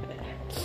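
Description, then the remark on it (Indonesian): Rain falls in a steady, soft hiss, a continuous wash of noise that stays faint and even through the brief moment, with a slight brightening toward the end. “Eh, ini sorry ya hujan jadi kayaknya suaranya bakal masuk tapi gue harap sih suara gue lebih keras ah, daripada hujan”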